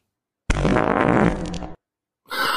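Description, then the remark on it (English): A loud recorded fart sound, called an avalanche, rumbles for over a second in one sustained, sputtering burst, then cuts off; after a short silence a second brief noisy burst starts. “Right, this is one that I think you might like, just called an avalanche.”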